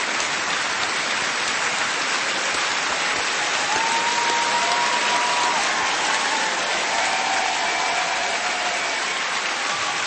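Sustained audience applause for a bishop fills the whole stretch, a dense, steady wash of many hands clapping at an even loudness, with a few faint tonal sounds drifting underneath.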